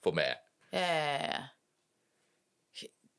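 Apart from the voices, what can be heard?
hiccup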